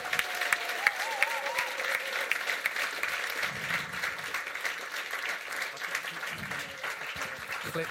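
Sustained applause from a sizable audience, dense rapid clapping continuing steadily for the whole stretch, with faint voices and a brief whistle-like tone buried underneath.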